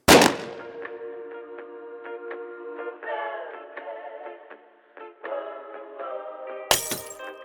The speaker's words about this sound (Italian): Respira, prende la mira, spara.